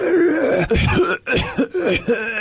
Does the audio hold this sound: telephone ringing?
no